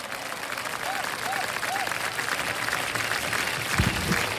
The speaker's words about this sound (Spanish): Aplausos.